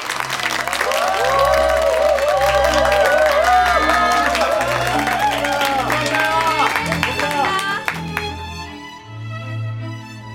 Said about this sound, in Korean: 마지막으로 신랑 신부가 부부로서 첫 발을 내딛는 행진이 있겠습니다. 모두 축복의 박수로 이 부부의 행복을 기원해 주시기 바랍니다. 신랑 신부 행진!